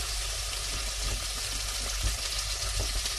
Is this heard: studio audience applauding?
no